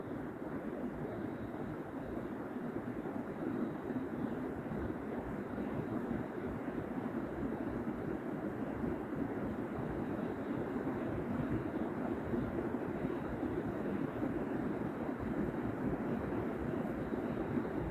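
rain falling

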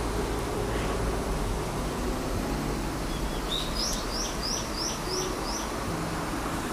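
birds chirping outdoors

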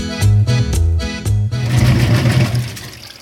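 washing machine running

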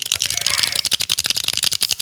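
pen clicking

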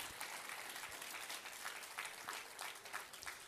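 small audience applause

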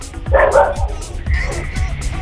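dog barking

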